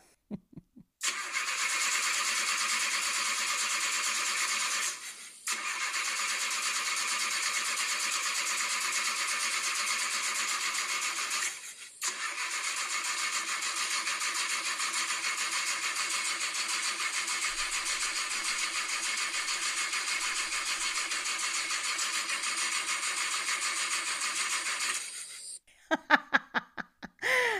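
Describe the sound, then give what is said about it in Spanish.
An old car engine cranks repeatedly, struggling to start, with a steady grinding whir broken by two brief pauses between attempts, loud, ending in a few sputtering bursts. “Para los que en alguna oportunidad han tenido un carro viejo, saben de ese sonido cuando prendemos el carro y rezamos para que arranque”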